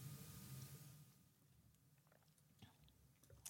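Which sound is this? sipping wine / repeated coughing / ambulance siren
sipping wine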